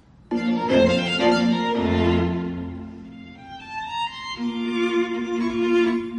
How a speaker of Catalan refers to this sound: És el Divertimento amb mi bemol major de Mozart. Vale? És la puta hòstia. Mira, escolteu. Bueno, un moment. És la Opus KB 564 564, perquè la trobeu, vale?